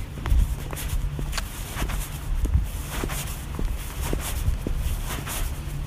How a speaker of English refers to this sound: I cross the street, walk up the driveway,